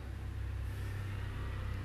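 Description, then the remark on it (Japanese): A steady low engine rumble of a small newspaper delivery motorbike passing by at around 2:25 a.m., shortly before morning, continuous and moderately loud with a droning low end, no voices present. “えー、新聞配達のバイクが走っていきますもうすぐ朝です”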